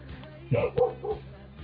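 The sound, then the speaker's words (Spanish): A dog barks three times in quick succession, short sharp woofs at moderate volume, over a low steady background hum with no one speaking. “Hola, el perro también oh, opinando, ¿eh?”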